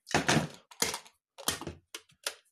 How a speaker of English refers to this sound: turn the kettle on.